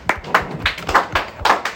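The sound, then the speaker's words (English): Several people clap their hands in a loose, slightly uneven rhythm, about six sharp claps spread over a couple of seconds, moderately loud with no talking, clapping for a new recruit to the team. “We're just clapping because we needed him for the team, I, I assure you.”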